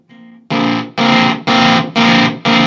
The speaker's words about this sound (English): That's no volume to it. That's just yeah. all based on touch sensitivity. Yeah. Now you can hear how what, what, a, what a gated fuzz is all about. Yeah, if you're wondering what a gated fuzz is all about, it's this.